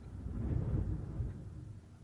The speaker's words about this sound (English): Wow. I don't know if you guys heard that. I think Thunder is like about, wow okay, we should probably get going because that was like the loudest thunder roll I think I've ever heard in my entire life.